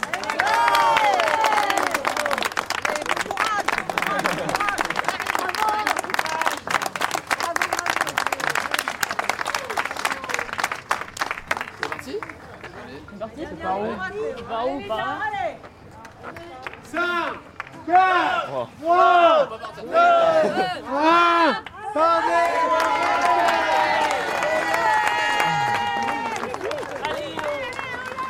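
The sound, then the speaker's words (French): A large crowd claps steadily and loudly, then whoops and cheers in rising, drawn-out shouts before the applause swells again, dense for the whole stretch. “Allez, félicitations à eux, je pense qu'on peut les applaudir.”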